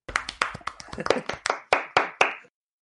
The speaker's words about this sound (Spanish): Bueno, somos porque te hemos ayudado, pero tú has estado ahí hincando el pico y aquí vamos a meter unos aplausos, porque de verdad, te lo mereces, tío.